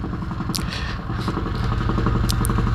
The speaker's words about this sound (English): The helicopter's back.